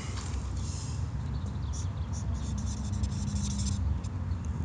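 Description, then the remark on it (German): A pen scratches across a page of an autograph book, a few seconds of quick, uneven strokes as someone signs their name, over a steady low background rumble. “Du darfst ja. in unser schönes Autogrammbuch unterschreiben, wo schon ein Haufen andere, unsere Gesprächspartner, geschrieben haben.”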